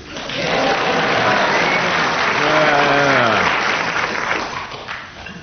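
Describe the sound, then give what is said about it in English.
A programme's audience claps in a steady, dense wash of applause lasting several seconds, with a voice briefly rising over it midway before the clapping thins out at the end. “They all clapped.”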